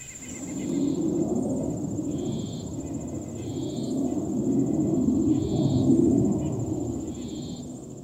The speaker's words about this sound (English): So let's play the clip from my park. You can hear the nature sounds and pretty soon you're going to hear a plane go overhead and consider how loud it is compared to everything else that's going on.